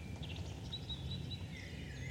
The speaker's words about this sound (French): je vous propose tout de suite d'écouter un extrait d'une capsule sonore réalisée pour le Parc naturel régional du Haut-Jura